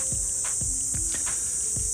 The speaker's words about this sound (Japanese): 結構湿度高くてセミくんもたくさん鳴いてて夏って感じがしてます